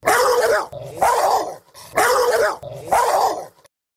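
A huge dog in the back seat of a passing Jeep with its windows down barks loudly at a runner, four deep, forceful barks in a steady rhythm, each one rough and booming, then silence.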